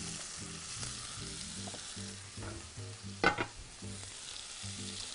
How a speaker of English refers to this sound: I just have a little bit of boiling salted water here.